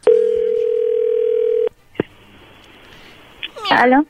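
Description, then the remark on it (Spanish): A steady, loud telephone dial tone holds for over a second and a half as a call is being placed, then cuts off with a click, leaving a faint line hiss before a brief high-pitched vocal sound at the end. “Bueno, ahí se está marcando,”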